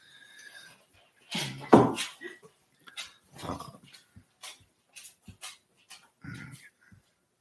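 A dog named Baroness whines in thin, high tones, then lets out a loud, sharp bark, followed by a series of short whimpers and yelps scattered over several seconds.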